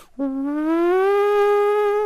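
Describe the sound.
A voice imitates a German fire siren, the kind tested across Germany on Saturdays at 12 noon, with a single loud, sustained wail that starts low and slowly climbs in pitch, holding steady for about two seconds without any talking.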